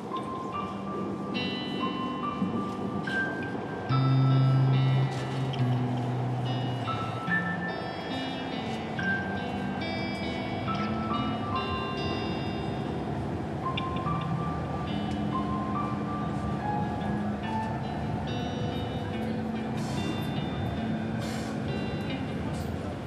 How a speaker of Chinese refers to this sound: 他越走越远就有那个回声就越来越明显，然后旁边是地铁的呼呼的风声，轨道声。没有其他声音。